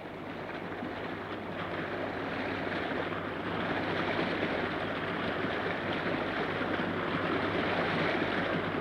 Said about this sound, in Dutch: Ondanks dat Mozes ongehoorzaam was geweest, stroomde er dus toch veel water uit.